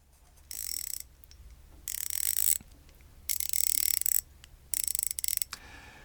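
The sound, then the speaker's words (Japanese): A Koken ratchet wrench, made by Yamashita Industrial Research Institute of Kakegawa, Shizuoka, freewheels in four quick bursts, each a rapid, fine-toothed buzz of tiny gear clicks, crisp, separated by short pauses of near silence. “柔らかいでしょこういうこのいい音なんですよで世界でこのラチェットが空転する時のこのギア音にというかこの軽さにこだわって作ってるのが静岡掛川からやってきた山下工業研究所貢献さんでございます。”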